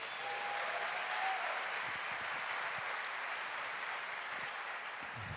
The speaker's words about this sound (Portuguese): Então, Deus abençoe esse homem, esse ministério de louvor. Parabéns. Vamos aplaudir mais uma vez, gente?